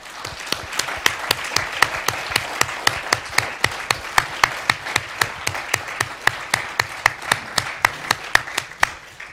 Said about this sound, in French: Merci encore à nos intervenants. On peut vous applaudir, je crois.